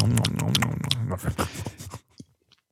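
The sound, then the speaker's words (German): A voice imitates loud, wet smacking and chewing noises of a hedgehog eating, rapid, fading into a few quieter smacks before silence. “Aber so ein Igel ist interessant, vor allem wenn er frisst, dann der schmatzt extrem laut.”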